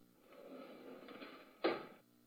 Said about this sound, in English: Arnold then went out the screen door